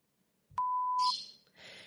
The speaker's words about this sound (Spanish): ¿Qué haría con el pobre Pluma? ¿Lo escucháis? Todo el programa aquí piando para que el pobre salga volando.